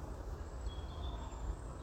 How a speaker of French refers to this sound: Là, présentement, t'as quand même pas mal la circulation.